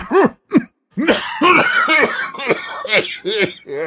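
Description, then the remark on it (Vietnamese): A man coughs: two short coughs, a brief pause, then a longer, harsher run of rapid, throaty coughs and hacks with no other sound. “Đột nhiên, thầy phù thủy bắt đầu ho. Thoạt tiên còn nhẹ, thế rồi mạnh bạo hơn.”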